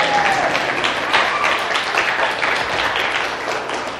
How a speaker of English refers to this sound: Y'all can clap or do something. Come on now.